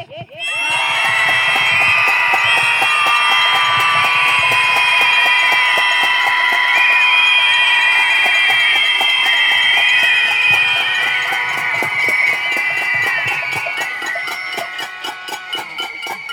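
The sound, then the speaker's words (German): At a protest against violence against women, a large crowd screams together in a sustained, loud roar for about fifteen seconds, shrill high-pitched voices layered over each other, the collective cry holding steady before starting to break up toward the end. “Dafür schreien wir jetzt.”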